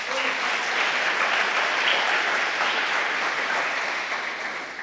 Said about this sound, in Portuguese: Dá um aplauso ao Senhor por isso.